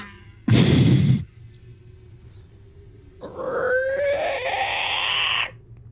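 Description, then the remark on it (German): A brief loud knock or clunk, then after a pause a wooden door creaks open inward with a drawn-out, wavering squeal lasting about two seconds, fairly loud. “Die Tür öffnet sich quietschend nach innen.”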